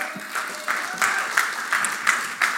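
An audience applauds steadily as a guest is called onto the stage for an interview, a dense wash of clapping with sharper individual claps bursting through roughly every third of a second. No one speaks over it.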